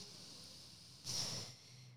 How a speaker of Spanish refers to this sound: Y si llegara el caso de que me afecta, voy a respirar igual que estoy respirando aquí, bien profundo.